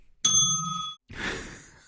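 A single bright desk bell on a table gives a clear ding, its metallic tone lingering for under a second before fading, followed by a soft breathy exhale or sigh.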